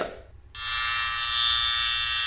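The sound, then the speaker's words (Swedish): An electric shaver switches on after a brief pause and runs with a steady, loud, high-pitched buzz that holds unchanged until the end. No one speaks. “Ja, där är rakmaskinen. Det har du helt rätt i.”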